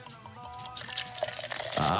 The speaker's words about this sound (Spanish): Y también una Kawama porque no hace mucho que no destapamos caguamas.